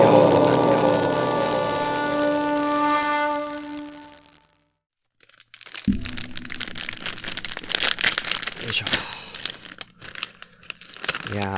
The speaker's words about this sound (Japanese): 音がうまく入るかなちょっと今日はですね、食レポから入りたいと思ってるんですけど、今袋開けましてですね、聞こえるかな取れてるかなあるものを今食べ始めてるんですけど、万歳山椒っていうね、お菓子